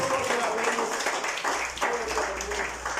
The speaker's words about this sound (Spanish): Dele el aplauso a Jesús